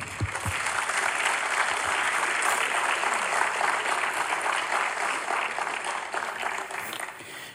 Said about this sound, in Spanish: Un aplauso al Señor.